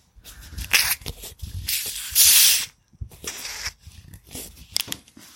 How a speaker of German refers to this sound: Nee, das, das ist einfaches äh, Radlerbier aus der Plastikflasche, das spritzelt nicht. Da muss schon so pss, mit so einem. Ein bisschen, bisschen gezischt hatte es, aber ich immer, wenn ich zu weit weg war.